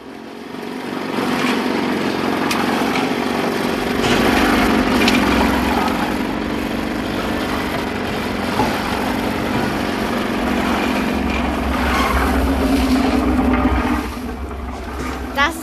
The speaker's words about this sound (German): Möchtest du mal mitkommen auf so eine Baustelle? Ja, gerne.